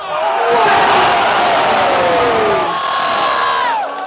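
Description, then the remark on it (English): A crowd at a village basketball championship game cheers loudly, many voices shouting and whooping together in a sustained roar that holds steady for a few seconds before tapering off at the end. “They're fast and nimble, the crowd cheering every dribble, drive, and dunk.”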